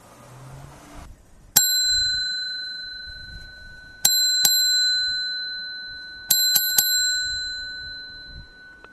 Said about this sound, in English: Uh, you knew that, you know, the pro listeners, those of you at the pro listener level, can identify the different bells.